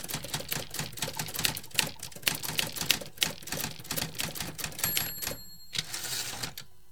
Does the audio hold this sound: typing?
yes